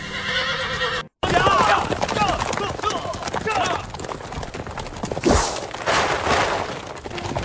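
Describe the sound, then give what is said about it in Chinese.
Horses of Hu cavalry at the Yan Mountains whinny in shrill, wavering cries over a steady clip-clop of hooves, with a brief cut-out early on and a loud burst of clatter partway through. “不聞爺娘喚女聲，但聞燕山胡騎鳴啾啾。”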